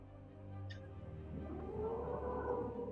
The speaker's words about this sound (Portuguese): O som da plataforma. É o elevador.